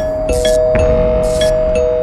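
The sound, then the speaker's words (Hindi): A doorbell rings on and on without pause, a steady electronic tone with bright chiming bursts repeating roughly every second, loud, with no voices; it keeps ringing even after the doorbell's MCB circuit breaker is switched off, its switch flicking on and off. “ऐसा सोच के उसने डोरबेल वाला एमसीबी तो ऑफ कर दिया लेकिन घंटी अभी भी लगातार बजी जा रही थी ये कैसे हो सकता था बिजली नहीं पहुंच रही लेकिन घंटी बज रही है”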